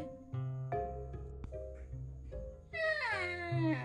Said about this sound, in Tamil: அப்படின்னு குழந்தை அழுக ஆரம்பிக்குது கையில அப்படியே தூக்கி வச்சுட்டே குழந்தைய தாளாட்டிகிட்டே இருக்கிறாங்க